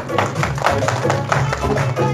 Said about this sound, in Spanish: Palmas, por favor